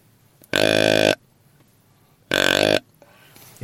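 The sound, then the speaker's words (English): Two loud, deep grunts from a deer grunt call imitating a bigger buck, made by pressing the call's button down further, each lasting about half a second with a short pause between, rough and burp-like, with no talking. “If I press down further, it's it's a bigger deer.”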